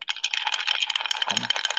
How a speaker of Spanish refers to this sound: Esos hielos, ¿estás queriendo decir algo con esos hielos? Es, el momento de la noche, escuchen. Ay, qué ruido. qué sonido.